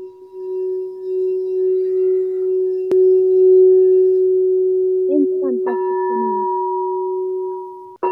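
A quartz singing bowl rings with a steady, pure sustained tone that hums continuously for several seconds, with a few soft knocks and brief higher overtones rising near the end.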